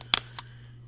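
A sharp plastic crackle as the cap of a water bottle twists open: a quick double snap followed by a smaller click, over a faint steady hum with no talking.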